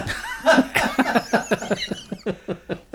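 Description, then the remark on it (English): A loud run of about a dozen rapid coughs, harsh and breathy, coming in quick rhythmic bursts that grow slightly shorter and quieter toward the end. “And now cough.”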